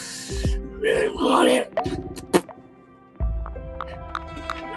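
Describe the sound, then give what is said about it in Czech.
A voice imitates strange, guttural creature noises: throaty growls, raspy breathy bursts and clicking gurgles in a short run of moderately loud vocal sounds with no clear words. “a jsou to takový, ale ty zvuky u toho jsou divně jako hrdelní.”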